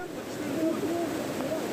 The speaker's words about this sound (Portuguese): Um temporal provocou alagamentos e transtornos no Rio de Janeiro. Uma enxurrada assustadora.